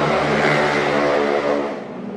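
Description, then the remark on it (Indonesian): A motorcycle passes by, its engine droning loud and steady with a buzzy rumble, then easing off slightly as it moves away. No voices. “lewat motor”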